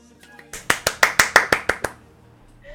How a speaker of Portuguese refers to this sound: Palmas.